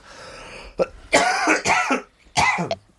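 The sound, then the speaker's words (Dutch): A series of harsh coughs in quick bursts, three main hacking fits with a brief throat-clearing catch at the start, loud and raspy with short pauses between. “Nou, en, ik, doe, ik, doe, ik doe heel veel, waardoor dat hoest heel veel te horen is overal.”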